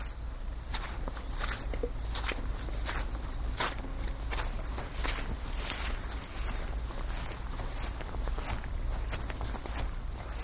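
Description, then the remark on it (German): Steady footsteps tramp at a walking pace, cross-country over muddy meadows near the Ohm river, each step a soft, squelchy crunch, with a low rumbling background underneath and no voices. “weil ich mich jetzt auf der falschen Seite der Ohm befinde und recht umständlich teilweise querfeldein über morastige Wiesen, die Gleise und den Fluss wieder auf den rechten Weg finden muss.”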